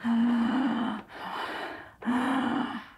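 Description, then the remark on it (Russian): Loud deep breaths drawn in sharply as a demonstration of consciously emphasized inhaling: three rasping pulses about a second each, the first and last carrying a throaty, voiced edge like a gasp, with no talking. “мы делаем вот это, то есть мы акцентируемся всегда э, осознанно на вдохе.”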